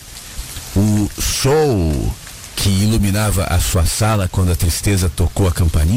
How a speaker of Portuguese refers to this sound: Aí você vai ouvir, enquanto conversa com a tristeza, a chuva, e a, e a tristeza vai dizer: Você está ouvindo as gotas de chuva?